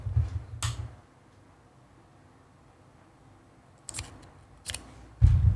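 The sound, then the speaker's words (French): A plastic pen clicks a handful of times, sharp dry snaps spaced irregularly with a quiet pause in the middle, the last one sounding like something giving way. “c'est cassé.”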